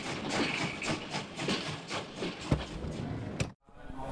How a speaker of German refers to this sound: der Zug hält gleich an.